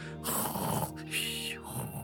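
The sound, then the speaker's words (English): A voice imitates snoring: two drawn-out, rasping snore sounds with a breathy, buzzing tone, fairly loud, with no other talking. “no, these were all tin virgins, so it was, maybe it was a pretty sounding snoring.”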